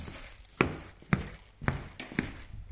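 Four footsteps at a steady, even walking pace, each a crisp thud with a light scuff, heard alone against a quiet, slightly hissy background.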